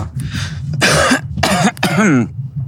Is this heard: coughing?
yes